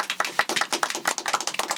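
A short burst of applause: quick, irregular hand claps, sharp and bright, overlapping into a steady patter for under two seconds with no talking.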